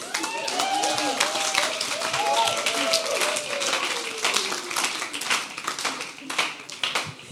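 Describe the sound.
An audience breaks into steady, dense applause lasting several seconds, many hands clapping in a loud crackling wash, with a few voices calling out underneath.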